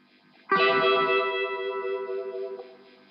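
A single electric guitar chord rings out with a swirling, watery phaser-like effect, sustaining for a couple of seconds and wavering as it slowly fades. No voices.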